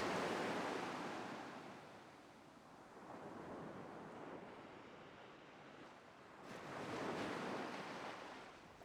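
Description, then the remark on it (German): Waves wash into a small sea cove on a sandy beach at sunset in a light wind, in slow surges, swelling near the start and again toward the end, with a soft steady hiss of water between them and no voices. “Du gehst weiter und erreichst eine kleine Bucht.”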